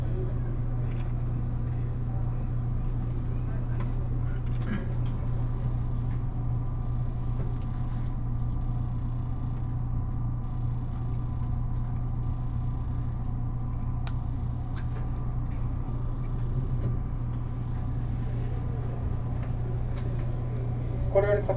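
Steady, enveloping running noise inside the cabin of an eight-car Nishi-Kyushu Shinkansen bullet train travelling from Nagasaki toward Saga, bound for Hakata: a deep continuous rumble and hum with a faint airy hiss, unchanging throughout, with occasional light clicks and rattles.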